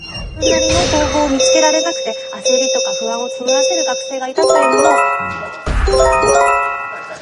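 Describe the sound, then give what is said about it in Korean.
A Japanese earthquake early warning alert chime, issued for Kumamoto, Fukuoka, Nagasaki and Miyazaki prefectures: a loud, bright electronic tone sequence with stacked ringing pitches that steps and repeats several times in quick succession. “緊急地震速報です。強い揺れに警戒してください。緊急地震速報が出ました。”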